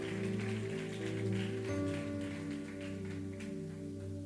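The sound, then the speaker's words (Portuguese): Dense, steady applause from a crowd, a continuous patter of many hands clapping over sustained low musical chords, lasting the whole few seconds without a break. “Aplauda, Senhor. Aplauda, Senhor. Se for para aplaudir, vamos lá.”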